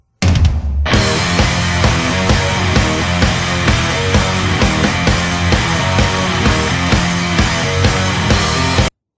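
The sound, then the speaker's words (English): A loud death metal song kicks in after a brief moment, with harsh screamed vocals over dense, distorted guitars and relentless pounding drums that keep a fast, steady rhythm throughout. “every single song had a similar sound, pretty much, and it was usually this type of stuff.”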